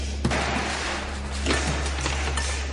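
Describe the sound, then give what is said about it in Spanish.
A table is thrown over in an empty hospital waiting room with a sharp crash, followed a second later by a second heavy clatter, over a steady low hum. “Tira la mesa.”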